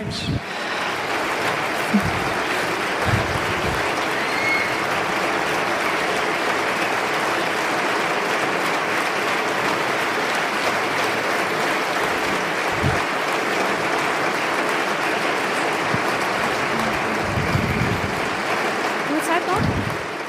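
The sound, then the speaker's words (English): Sustained applause from a large audience for the writer Kübra Gümüşay after her talk, a dense, steady wash of clapping that holds at an even loudness for about twenty seconds with no voices standing out. “Dein Applaus. Your applause, Kübra Gümüşay.”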